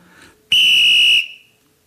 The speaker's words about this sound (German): Und als Unterschied eine italienische Balila-Pfeife